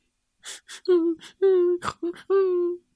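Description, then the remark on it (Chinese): A voice imitates a little pig crying near a tree stump in a children's story: quick breathy sniffles and gasps, then three drawn-out, wavering whimpers at a steady mid pitch, fairly loud, with no words spoken. “好像还有人在哭。”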